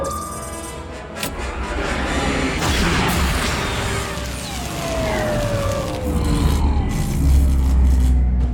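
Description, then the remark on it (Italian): A loud sci-fi ion cannon blast hitting a ship slams in with a broad roaring rumble, falling electronic whines sweeping down through it and a heavy low rumble continuing to the end, with no voices. “Ci ha colpiti un cannone ionico.”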